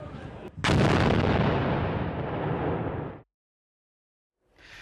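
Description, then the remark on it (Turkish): A heavy artillery strike on regime targets erupts suddenly with a sharp crack, followed by a long roaring rumble that fades over several seconds before cutting to silence, then faint rumbling returns. “rejim hedeflerini başarılı şekilde imha etmeye devam ediyor.”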